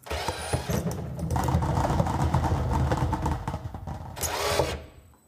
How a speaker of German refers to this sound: Wie bei jedem anderen, wir drehen die Trommel neben uns und ziehen eine Zahl und dazu gibt's eine Frage und die würde ich dir gerne stellen.